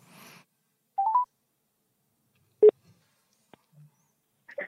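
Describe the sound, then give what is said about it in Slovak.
A phone number is dialed once more: a quick run of three short electronic keypad tones, then a sharp click and a few faint, scattered sounds amid near-silence. No one speaks. “môžeme vytočiť ešte raz to číslo.”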